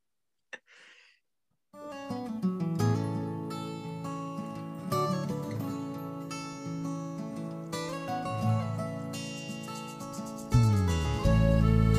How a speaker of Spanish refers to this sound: Regio, vamos a, a, escuchar una rolita y regresamos.